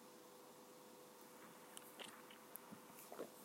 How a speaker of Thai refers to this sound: ขออนุญาตนิดนึงขอจิบกาแฟร้อนๆนิดนึงค่ะ